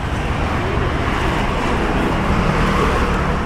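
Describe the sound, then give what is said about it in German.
Heavy road traffic on the four-lane Waiyaki Way through Kangemi, a slum in Nairobi, roars past in a steady, continuous wash of engine and tyre noise, loud, with no voices or pauses throughout. “Der Verkehr braust über den Wayaki Way quer durch Kangemi, einen der vielen Slums in Nairobi.”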